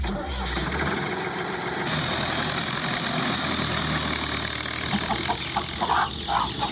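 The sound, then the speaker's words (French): A tractor engine rumbles steadily, a low mechanical drone with a sputtering start, as someone drives the tractor for the Dole fair in France, continuing throughout with some brief higher bursts near the end. “Ça va pas bien, toi Qu'est-ce que tu fais au volant d'un tracteur pour la foire de Dole.”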